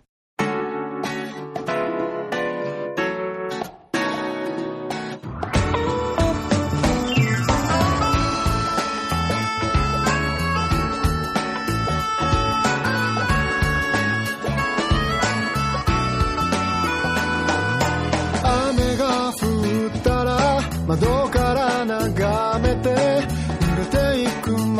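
A song's instrumental intro opens with a brief sparse section, then a full band kicks in loudly around five seconds, playing steadily with dense harmonic instruments and drums, no vocals yet.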